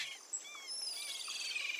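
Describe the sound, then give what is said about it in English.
A dense chorus of high, shrill calls, chirps and whistling cries of tropical birds on a small island with low trees, heard from a ship passing close, overlapping continuously with no voices. “There are some low trees, and as the ship passes close, you can hear the just shrieking of tropical birds.”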